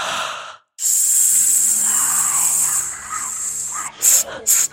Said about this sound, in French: Idéalement, vous arrivez une petite heure à l'avance afin de prendre possession du plateau, de faire quelques exercices de respiration ventrale sifflante